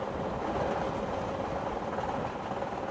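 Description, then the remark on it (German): A steady, continuous rumble of a moving train, with dense mechanical clatter and a constant roar at even volume throughout, with no voices. “Gegen 3 Uhr nachmittags hatte der Zug Paris bei schönstem Herbstwetter verlassen.”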